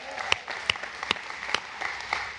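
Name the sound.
audience applause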